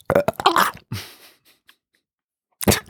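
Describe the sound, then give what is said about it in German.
A loud, drawn-out burp erupts, rough and gurgling before trailing off, then a short pause and another brief voiced burst at the end. “Das war mit Abstand der ekligste Rülps, den ich jemals getan und gemacht, ja.”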